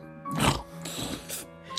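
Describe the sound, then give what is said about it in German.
A sleeping man, whom someone tries twice to wake, lets out a few throaty grunts and snorts that sound like a pig, rough and nasal, with a short pause between bursts. “grunzt nur wie ein Borstenvieh und schläft weiter.”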